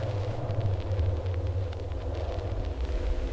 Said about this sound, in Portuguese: O ruído marítimo que, vez ou outra, é interrompido por carros pela costa.